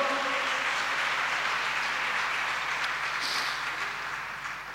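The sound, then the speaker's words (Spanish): A crowd claps in praise of Christ, steadily, in a dense, continuous wash of applause that holds strong for several seconds before easing off slightly at the end, with no voices standing out. “Dale un aplauso a Cristo, hermano, a su nombre, gloria.”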